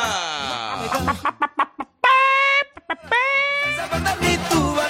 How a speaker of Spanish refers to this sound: ¡Suena el gallo! ¡Suena la gallina!